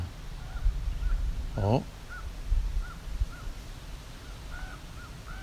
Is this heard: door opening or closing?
no